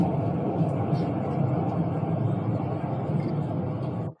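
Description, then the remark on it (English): A steady, loud roaring rush like a raging river, with dense rumbling texture that holds constant for about four seconds before cutting off abruptly; the flow making it moves only about a foot or a couple of feet per minute. “it sounds like raging river, but it's moving at uh, I don't know a foot every minute or something like that, or a couple feet every minute.”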